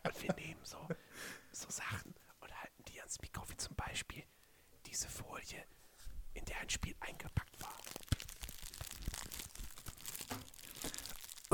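Soft whispering with intermittent crinkling and crunching noises, like material being handled, in a quiet ASMR style with brief pauses.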